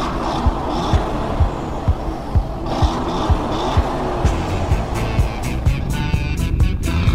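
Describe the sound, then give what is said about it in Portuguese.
A Pininfarina Battista electric hypercar with 1,900 horsepower drives past with a steady rushing whir of road and motor noise, punctuated by regular low thumps, loud, with no one talking. “Com assinatura de um dos mais reconhecidos estúdios de design do mundo, o super esportivo é elétrico, com 1.900 cavalos e vai de 0 a 100 em menos de 2 segundos, atingindo a velocidade máxima de 350 km por hora.”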